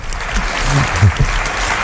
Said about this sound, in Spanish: Pues hasta aquí el tiempo del territorio Comanche. Si les gustó, pueden aplaudir a mi Otero, Nuria Torreblanca y Máximo Pradera.